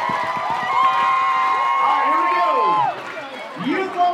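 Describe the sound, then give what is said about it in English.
A loud crowd of parents, coaches and spectators cheers and shouts continuously for the athletes at session three of a competition, with shrill whoops and screams rising and falling over rapid clapping early on, dipping briefly before surging again. “Parents, coaches, and our spectators. Let's make some noise, these tremendous athletes down here.”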